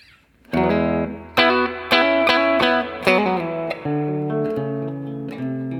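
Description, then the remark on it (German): An electric guitar on the bridge pickup plays a series of strummed chords and ringing notes with a bright, slightly overdriven tone. Each attack sustains into the next at a steady, fairly loud level, with no voices. “Wir sind auch auf dem Steg-Pickup.”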